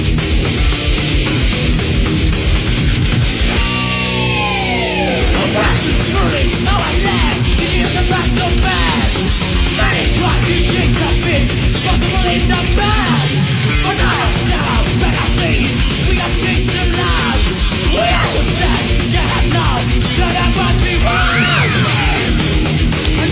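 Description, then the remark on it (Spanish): Loud, dense Argentine thrash metal from the 1980s plays throughout, with fast distorted guitars and pounding drums, while a harsh screamed vocal, inspired by North American thrash metal, cuts in with high, sliding shrieks. “esa forma de cantar, de acentuar algunas palabras, y esos gritos están muy inspirados en lo que era el thrash metal norteamericano, puntualmente de bandas como … o como … o como …, incluso también como …, por ejemplo.”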